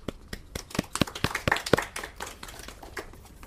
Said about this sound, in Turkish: Alkışlanır.